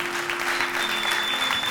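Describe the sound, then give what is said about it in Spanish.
A church audience claps for God during a sermon in a dense, continuous wash of applause, with a faint steady tone humming underneath throughout. “Y danos un aplauso a su Dios.”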